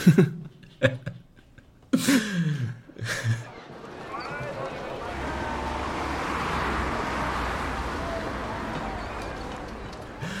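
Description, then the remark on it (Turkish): A few short vocal bursts, then a car sound effect rises into a steady, broad engine-and-road rumble that swells and holds for several seconds, moderately loud. “Ee, Araba seslerinde de baktığımızda büyüklük dedik ya.”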